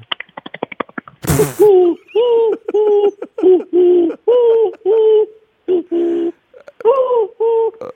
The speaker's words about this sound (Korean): 네그 다음에 저희 이제 그 어, 비둘기 비둘기 소리 들려드리겠습니다. 예 예.